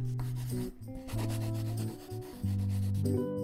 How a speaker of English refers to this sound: Do you hear the sound of your own pencil drawing?